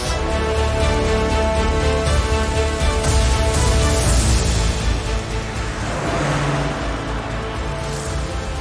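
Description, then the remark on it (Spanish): A car, one of four vehicles, drives from France toward Monte Carlo on Saturday 26 July in high temperatures, with a steady, fairly loud engine drone and road rumble, the motor's pitch shifting slightly midway as it moves past. No voices. “El sábado 26 de julio dejan Francia, rumbo a Monte Carlo, en auto. Eran cuatro vehículos.”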